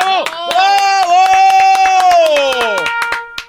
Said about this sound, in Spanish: ¿Sabe qué, maestro? Déjeme le aplaudo. ¡Bravo!